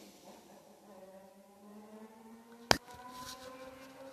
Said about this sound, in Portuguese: Nossa, a moto é tão barulhenta que mesmo com a janela fechada, ela consegue fazer barulho. É incrível, cara. É incrível.